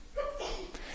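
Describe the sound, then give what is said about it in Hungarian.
A single sneeze: a brief voiced intake rising into a sharp, breathy burst, moderately loud and over within a second, with no talking. “egészségedre.”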